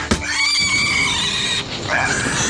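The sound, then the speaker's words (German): A wild boar squeals in panic after being struck on the snout, one loud, shrill, wavering cry that runs on for a couple of seconds with a brief dip before rising again. “Entsetzt quiekend und von der Wucht des Schlages leicht schwankend, rannte das Tier in panischer Angst davon und die restliche Meute tat es ihm gleich.”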